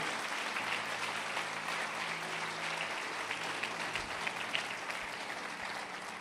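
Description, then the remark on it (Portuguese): A church audience applauds the name of Jesus during a sermon, a dense wash of many hands clapping at an even level for several seconds, with a faint low hum underneath and no talking over it. “Aplauda o nome de Jesus, vamos lá, exalte o nome dele.”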